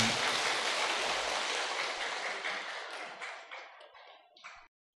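A crowd applauds loudly, a dense wash of clapping that gradually thins out, ending with a few scattered claps before stopping abruptly.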